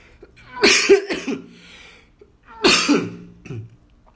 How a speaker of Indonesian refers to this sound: ya Allah batuk lagi sorry guys